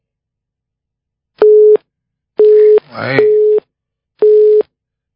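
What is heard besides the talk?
telephone busy signal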